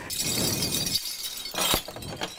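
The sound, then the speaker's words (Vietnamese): Metal marathon medals jingle and clink against one another in a brief, bright rattle as they are held up, with a sharper cluster of clinks near the end. No one speaks. “ví dụ như ở đây những ai chưa chạy bộ được marathon tôi cầm đống huy chương của tôi len keng len keng len keng tôi cho các anh chị xem”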